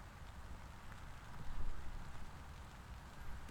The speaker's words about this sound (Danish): Begynder det at regne lidt? Ja, det gør det.